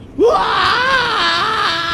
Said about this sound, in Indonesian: Di tengah pantai itu, … berteriak melepaskan stresnya.